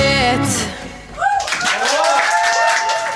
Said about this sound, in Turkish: Abi bence de alkışlar ya şöyle. Biz de alkış gönderelim.